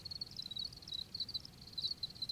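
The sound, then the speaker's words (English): Crickets chirp steadily inside an apartment building in rapid, shrill pulses, a continuous high trilling chorus over a soft low rumble, with no voices present. “my neighbors haven't said anything, so maybe they just think it's like a white noise machine that makes cricket sounds.”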